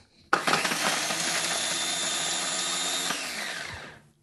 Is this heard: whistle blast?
no